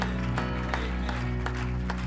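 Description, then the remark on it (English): An audience claps hands in a loose, steady rhythm, sharp beats landing roughly every half second over a sustained musical drone filling the room. “If you believe that, say in Jesus' name and clap your hands as you say amen.”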